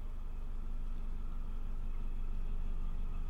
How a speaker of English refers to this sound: Oh, look, a little boat going past.